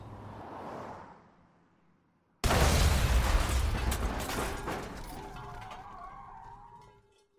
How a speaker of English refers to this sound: There is an explosion. You died in the accident, and three other people were injured. It seemed that the explosion was caused by your oil tank leaking.